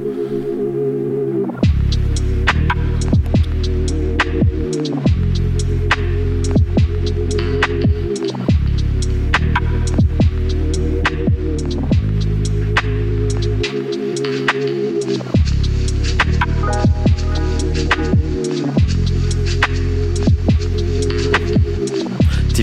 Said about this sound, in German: Ähm, wir werden mal ein paar von seinen Beats noch anmachen und da fix reinhören und dann kann ich euch eventuell auch noch ein paar Freestyles drauf kicken.